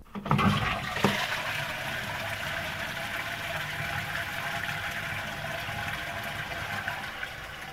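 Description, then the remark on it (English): A toilet flushes, starting with a sharp click and surge, then a steady, loud rush of swirling water that continues without letup. No one speaks. “But can it generate power from flushing toilets.”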